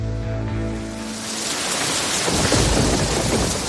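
Steady, heavy rain pours down in a dense hiss while a deep roll of thunder rumbles low at the start, fading into the continuous downpour. No voices are heard.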